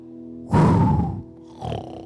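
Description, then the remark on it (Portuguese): A voice imitates snoring with a loud, rough, low rasping inhale lasting about half a second, followed by a shorter, softer snort over a steady background hum. “Até ronca, ó.”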